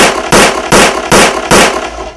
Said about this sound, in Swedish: Doc Larsson han stiger snabbt fram och sen ser ni hur han avlossar fem skott till in i rummet